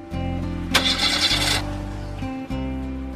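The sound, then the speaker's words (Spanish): An old pickup truck's engine cranks and grinds with a low, rough droning tone and a harsh raspy burst in the middle, sputtering without catching. No one speaks. “Ahora su vieja camioneta se negaba a arrancar.”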